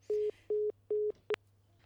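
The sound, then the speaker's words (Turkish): A telephone busy tone after a phone connection to Rojava, a war zone, drops during a broadcast: three evenly spaced, steady beeps with short gaps, fairly clear over a low hum, ending with a brief click. “Ah, alo, evet e, yaptığımız telefon bağlantısı kesildi.”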